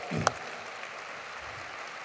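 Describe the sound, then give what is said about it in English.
Faint, steady audience applause for a production team's video on Cuyahoga County, a soft wash of many hands clapping with one sharper clap near the start, no voices present. “This was made right at the offices of Cuyahoga County, so give them a round of applause for their video on Cuyahoga County.”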